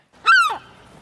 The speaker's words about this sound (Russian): Че ты молчишь-то? Ах, Джонатан, вот чайка она и в Италии чайка.